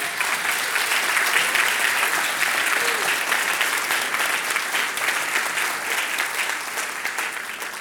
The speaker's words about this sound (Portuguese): Dá um aplauso ao Senhor, gente.